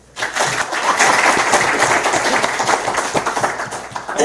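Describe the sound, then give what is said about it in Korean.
A crowd bursts into steady applause, many hands clapping densely and loudly for about four seconds before it begins to thin out near the end. “괜찮다 싶으시면 박수 한번 주십시오.”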